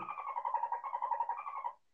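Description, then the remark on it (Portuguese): A dolphin vocalization: one continuous, buzzy, rapidly pulsing call at a mid pitch, holding steady in loudness for nearly two seconds before cutting off, with no talking. “Mas pra gente não, mas acho que pros golfinhos significa alguma é coisa.”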